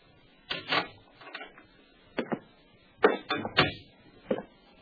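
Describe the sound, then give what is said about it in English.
A door being opened only an inch in answer to the doorbell: a few short clattering knocks and rattles, like a latch and knob being worked, spread unevenly over several seconds with no voices. “But when he did answer, he only cracked the door an inch.”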